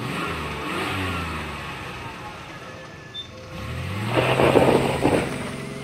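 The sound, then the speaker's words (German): A car engine idles and then revs up as Herr Kniffel gets into his car and drives off, the pitch climbing as it pulls away and accelerates, moderately loud, with no talking. “Jetzt steigt da ein in sein Auto.”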